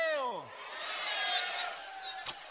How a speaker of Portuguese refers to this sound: Quantos aqui têm autoridade, dá um grito de júbilo.